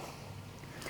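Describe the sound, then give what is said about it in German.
A steady, broad wash of sea surf rumbles in the background, a continuous low roar of waves with no distinct breaks, moderately loud and even throughout. “du hörst vermutlich gerade im Hintergrund das Meeresrauschen”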